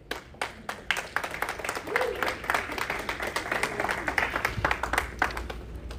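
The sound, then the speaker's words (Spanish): An audience applauds for Jesus, a dense wash of many hands clapping with sharp individual claps poking through, sustained at an even level for several seconds. “Un aplauso a Jesús, por favor.”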